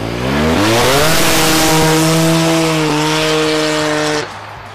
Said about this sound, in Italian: Ecco, voi non potete vedere, ma questo T-Max è schizzato via impennando, ovviamente, perché non riusciva a tenerlo giù.